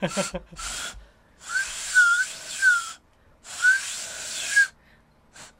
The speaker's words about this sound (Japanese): でも口つけないとこれ音ちゃんと出ない なんと音階の変わる現地の人が作ったであろう笛ですうんちゃんと加えて吹いたら音ちゃんと出ると思う、うんうん